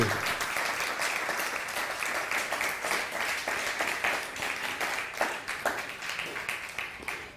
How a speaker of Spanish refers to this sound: bienvenidos, un fuerte aplauso a todas las naciones del mundo mundial.